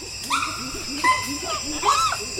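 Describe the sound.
A chimpanzee family that has settled in a Moabi tree calling: several overlapping voices give short rising hoots and whimpering cries, repeating irregularly at moderate loudness over a steady, faint background hum.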